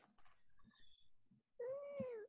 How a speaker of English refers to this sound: Cat. Cat.